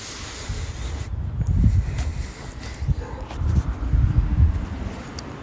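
Heavy breathing blasts into a microphone as low, rumbling gusts of air, several uneven puffs rising and falling over a steady hiss, with no words spoken.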